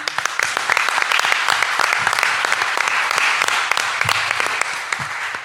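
A crowd applauds steadily, with dense overlapping claps forming a loud, continuous patter that holds evenly throughout, with no voices standing out.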